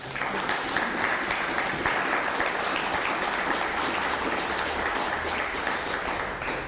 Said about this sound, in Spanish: Fuerte aplauso a Venezuela, ¿por qué no?